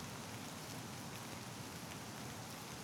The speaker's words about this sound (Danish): 11 du befinder dig stadig i regnen foran skruelykker, Jan og Katrines hus i Askedalene. Du hører regnen.